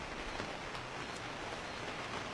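Steady, even hiss of rain falling outdoors, a continuous wash of droplets with a few faint taps, moderately quiet and with no one speaking.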